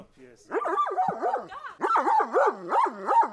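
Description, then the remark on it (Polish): A chorus of dogs at an animal shelter's new site barks and yelps over one another in a steady, overlapping din, with a short lull in the middle before the loud barking surges again. “Ponad 200 kotów, czyli wszystkie już przeprowadziliśmy i połowa psów, czyli około 50-60.”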